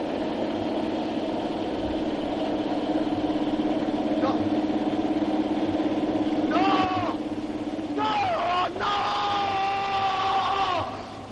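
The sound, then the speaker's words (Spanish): The strange occupant of a ruined house screams desperately in long, wavering cries on seeing an elegant black car arrive at the Pozal de la Culebra, first briefly and then in a sustained outburst, over the steady low rumble of the car's idling engine. “De pronto se escuchan los gritos desesperados del extraño inquilino de la casa derruida al ver llegar al vehículo.”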